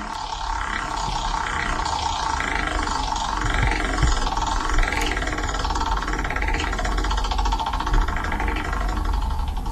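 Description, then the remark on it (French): A prize wheel spun to draw a giveaway winner gives a loud, continuous whirring rattle with rapid repeated ticks that carry on for the whole stretch, with no voices. “Allez, on va lancer la roue.”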